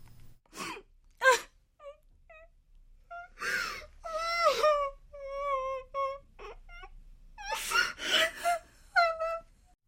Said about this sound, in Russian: А однажды из кабинета главного врача послышался плач женщины.